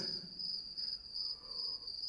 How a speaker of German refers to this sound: Grillen, zwitschern schon wieder,